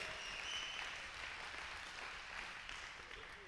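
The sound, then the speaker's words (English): An audience claps steadily for a newly announced coordinator, a dense wash of applause with some whistling and cheering mixed in near the start, holding at an even level before easing slightly at the end. “So, uh, and then also, if you can give a rousing uh, round of applause.”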